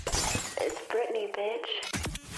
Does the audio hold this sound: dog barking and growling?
no